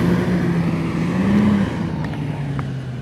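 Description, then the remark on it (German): A city bus on line 9 pulls up and parks, its engine rumbling steadily, the low hum dipping slightly as it slows, with a couple of faint clicks near the end and no voices. “der Bus parkt.”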